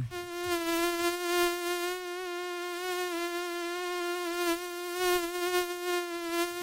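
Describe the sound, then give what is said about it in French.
A mosquito's high-pitched buzzing whine hums steadily for several seconds, wavering slightly in pitch, with no other sounds around it. “ce sont aigu, là, vous entendez qu'on déteste tant”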